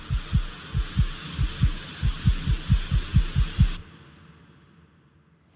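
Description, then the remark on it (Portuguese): A strong, rapid heartbeat thumps in steady low pulses, about a dozen beats over hiss, then stops abruptly, leaving faint quiet. No one speaks. “Você quase sente o peito apertado e o coração batendo forte e rápido, e o ar se arrastando como se tivesse ferrugem nos seus pulmões.”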